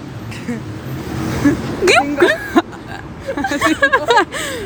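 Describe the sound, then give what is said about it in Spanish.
A voice imitates a car engine with revving, sweeping vocal sounds over a low rumble, broken up by chuckles and hiccup-like bursts, fairly loud. “Sonido de auto.”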